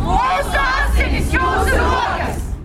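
protest crowd shouting

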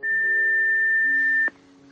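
answering machine beep

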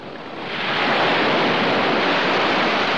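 stormy sea waves

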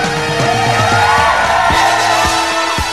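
applause and cheering

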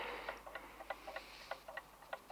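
clock ticking

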